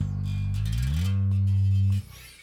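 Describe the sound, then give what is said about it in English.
A single electric bass note played alone slides up in pitch partway through, holds steady and loud, then fades out at the end. “You can you can kind of hear it when I've got the bass singled out like I do now, but when you're playing within a band with drums and guitars and keyboards and everything else and singing, that pretty much sounds the same as”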